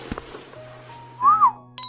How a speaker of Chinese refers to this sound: 包厢里的男男女女吹着口哨，有的还拿起手机准备录视频。